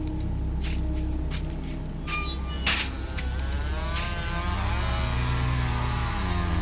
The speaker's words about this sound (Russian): Во дворе работа шла полным ходом. За домом пронзительно верещала бензопила, с треском падали старые садовые деревья.